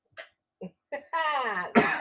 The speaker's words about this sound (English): Hey, yeah, they just they just let us take our masks off today at work, and I'm coughing. This is bullshit.